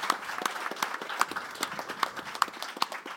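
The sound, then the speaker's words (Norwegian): An audience applauds as leaders of youth political organizations such as AUF, Senterungdommen, Grønn Ungdom, Unge Venstre, KrFU, Unge Høyre and FBU are introduced, a dense, steady patter of many hands clapping at once with sharper individual claps popping out, holding at an even moderate level with no voices. “Gi dem en god applaus.”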